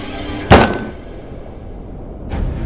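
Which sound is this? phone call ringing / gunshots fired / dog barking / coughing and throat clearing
gunshots fired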